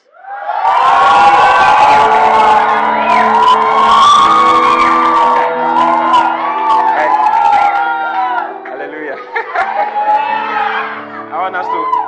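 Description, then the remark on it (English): A church audience shouts and cheers loudly for about twelve seconds, a dense roar of overlapping voices with high whoops and yells rising above it, easing slightly toward the end. “When I when I heard it, you people are loud.”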